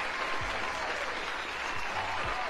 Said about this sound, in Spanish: Aplausos muchachos en el chat. Uy, manden esos aplausos para Nancy porque ya tenemos ganadora.